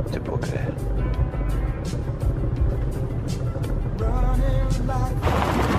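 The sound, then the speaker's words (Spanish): A car with a flat tire rumbles loudly as it pulls off a mountain road onto the shoulder just before a bridge, tires crunching over rough ground in rapid crackling bursts, with a voice talking over the engine noise. “El auto se estaciona en la banquina.”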